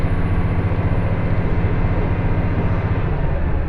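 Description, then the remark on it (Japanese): Steady, loud low rumble of a two-car train running on the IGR Iwate Galaxy Railway and JR Hanawa Line from Morioka toward Ōbuke, Japan, heard from inside the carriage, with a continuous droning hum and faint rhythmic vibration, no voices present. “耳で楽しむ鉄道旅 ＩＧＲいわて銀河鉄道＆ＪＲ花輪線 盛岡→大更”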